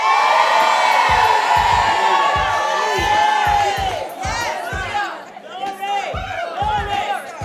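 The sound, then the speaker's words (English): A church audience in the morning, people who have taken their shoes off, cheers and shouts loudly, many voices whooping and yelling at once, with steady low thumps pulsing underneath; the roar dips briefly midway, then surges again. “If you got your, if you got your shoes off, make some noise.”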